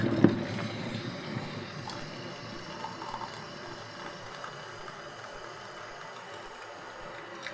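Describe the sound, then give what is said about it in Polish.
Hot water is poured steadily into a mug until about half full, measured with a finger, for dyeing eggs, a continuous splashing and trickling that lasts several seconds, with no one talking. “Nalewam sobie pół szklanki, pół kubka metodą na paluch.”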